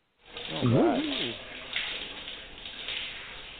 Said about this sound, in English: And because you got so dirty, we have to wash you off and we are going to put you in the shower.